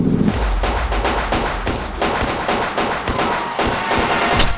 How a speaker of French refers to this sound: Le pare-brise s'étoile. Les balles à haute vélocité le traversent comme du beurre.